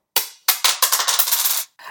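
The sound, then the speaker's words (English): Dice are rolled on a hard surface to pick a song: a few sharp separate knocks, then a quick rattling tumble that fades out, followed by one more brief clack. No one speaks. “We should move on to our third song of the night, which revolves another roll of the dice.”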